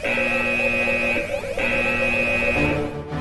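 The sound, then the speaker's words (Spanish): A loud electronic alarm buzzer blares in two sustained bursts with a brief gap between them, a harsh steady tone layered with a pulsing warble, with no talking over it. “Alerta de espionaje. Alerta de espionaje. Intrusas, intrusas.”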